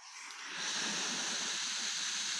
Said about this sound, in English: you just make a noise and then it's just a static noise that just plays